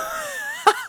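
A sneeze: a drawn-out, wheezy voiced intake followed by a sudden sharp burst of breath, with a brief second puff of air right after.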